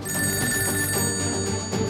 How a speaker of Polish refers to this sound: Około pierwszej po południu od pracy oderwał go dzwonek telefonu.